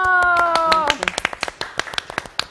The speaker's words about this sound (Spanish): aplausos a Palomo